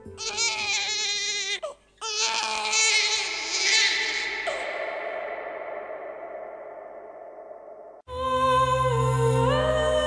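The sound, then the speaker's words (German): A newborn wails in loud, strained cries with a brief gasp for breath, the sound trailing into a long fading sustain before another sharp cry bursts in near the end. “Auch wenn wir die geballten Sinneseindrücke im Einzelnen noch gar nicht wahrnehmen konnten, eines dürfte uns im Augenblick unserer Geburt bewusst gewesen sein. Alles war irgendwie besonders. Es war ein Abschied und ein Anfang. Und es war zum Heulen.”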